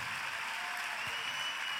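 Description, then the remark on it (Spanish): An audience applauds steadily, many hands clapping together in a dense, continuous wash of sound that holds an even level throughout, with no voices heard. “Dale un fuerte aplauso.”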